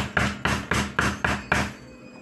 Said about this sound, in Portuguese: Agora, acabaram de bater na porta de Selminha.